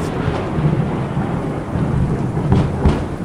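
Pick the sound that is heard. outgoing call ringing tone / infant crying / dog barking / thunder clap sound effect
thunder clap sound effect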